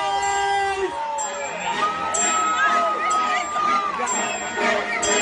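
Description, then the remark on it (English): A crowd cheers loudly and steadily, with shrill whoops and high-pitched shouts rising above a dense wall of voices, plus sharp whistle-like squeals cutting through at intervals. “Make some noise.”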